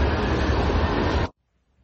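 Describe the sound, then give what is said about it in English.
A steady, dense wash of road traffic and street hubbub on the Hagley Road, rumbling continuously at moderate loudness with no distinct voices, then cutting off abruptly into near silence. “Uh, no more cars and general hubbub.”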